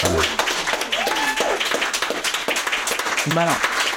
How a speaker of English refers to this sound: um, and uh, yeah, really looking forward to seeing you guys and just give them a bit of a round of applause.